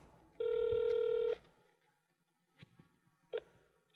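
Telephone dialing and ringing: a steady, fairly loud electronic tone holds for about a second, then two short, quieter dial beeps follow after a pause. No one speaks.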